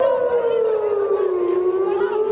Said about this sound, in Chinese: 民众抱怨纳坦雅胡政府营救人质不力，抗议到一半，空袭警报响起。